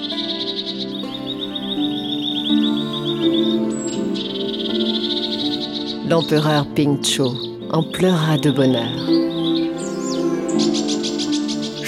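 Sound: nightingale singing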